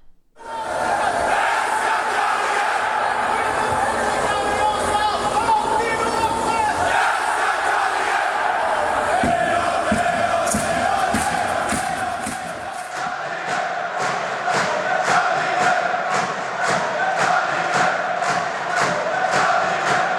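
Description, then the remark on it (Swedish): A large crowd of hockey fans chants loudly and continuously in Soft Center Arena, voices blended into a roaring sing-along, with rhythmic claps or drum-like beats punctuating the second half. “Ska vi lyssna lite hur det aldrig mer kommer låta i Soft Center Arena?”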